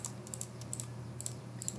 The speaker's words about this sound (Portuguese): Esse programa aqui ele é tão rústico, mas tão rústico que o barulhinho do clique do mouse fica aparecendo em todo o programa.